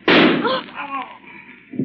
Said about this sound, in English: That shooting, what does it mean? Stand where you are, I tell you. That shooting, it is my man arranging matters so that we do not have too big a crew on my new boat.